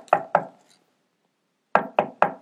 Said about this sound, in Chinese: 她敲门